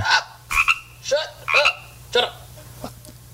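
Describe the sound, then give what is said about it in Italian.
A frog croaks about six times in a steady rhythm, each croak a short, raspy burst, with a low constant hum underneath and nothing else happening. “Ma è una rana questa, non papà. Una rana, forse?”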